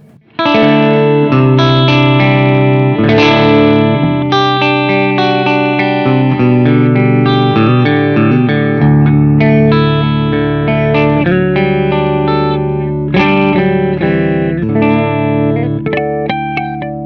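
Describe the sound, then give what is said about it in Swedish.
An electric guitar played through the clean channel of an Olsson Studio 18 amplifier: ringing chords and picked single notes with a sustained, resonant tone, steady and loud throughout, with no talking. “Och nu går du alltså till den rena kanalen på Olsson Studio 18.”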